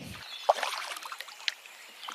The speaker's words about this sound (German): Wir haben uns inzwischen in ein Kanu gebeamt und paddeln über einen der Seen in Ontario.